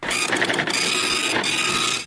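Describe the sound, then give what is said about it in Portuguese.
A printer runs steadily for about two seconds, printing out another page, its mechanism whirring and clicking with brief rhythmic pulses early on, fairly loud with no voices. “Ó, saindo mais um aqui na impressora.”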